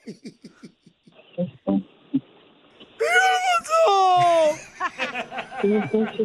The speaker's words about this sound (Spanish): Ya está llorando, ya dígale.